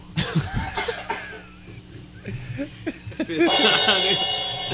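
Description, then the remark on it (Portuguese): Someone coughs a few times in short, harsh bursts, with muffled voices and a bit of laughter-like murmuring around them. “foi tossir, desculpa”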